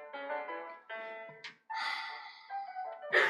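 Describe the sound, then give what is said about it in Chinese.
A performer reading a children's story voices the character Big Bear coughing: a few gruff, drawn-out vocal grunts followed by rough, breathy coughing bursts, moderately loud, with no speech. “大熊咳嗽呢，听见没有？”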